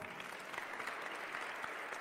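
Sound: applause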